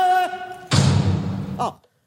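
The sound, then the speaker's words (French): A short vocal exclamation, a clock character saying "Oh, la porte" in French, gives way to a loud door slam sound effect from a stage show recording, whose heavy, rattling rumble lingers for about a second before another brief voiced sound cuts in. “L'horloge dit Oh, la porte, et il y a un son de porte.”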